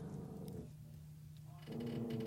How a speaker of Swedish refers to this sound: Oj! Ja, är det vovven som låter? Mm. Ja, det är mm. inte någons mage. Hej Billy! Hej! Han vaktar.